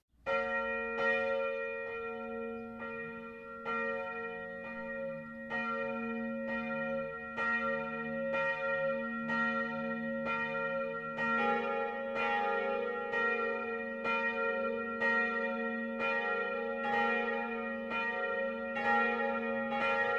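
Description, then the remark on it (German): Noon church bells at 12 o'clock from the Evangelical-Lutheran parish church of St. Bartholomäus in Kirchensittenbach, Middle Franconia, ring steadily for the full stretch, several bells overlapping in a continuous, loud peal with regular strikes and a rich, lingering hum. No voices are heard. “Das Mittagsläuten kommt heute von der evangelisch-lutherischen Pfarrkirche St. Bartholomäus im mittelfränkischen Kirchen-Sittenbach.”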